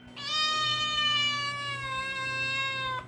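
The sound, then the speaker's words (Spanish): A cat lets out one long, loud, drawn-out meow lasting close to three seconds, steady and sustained before cutting off, with no talking; the cat is meowing in a living room in the early hours before dawn. “En otra ocasión, ahora, en la madrugada, me despertó sus fuertes maullidos en la sala.”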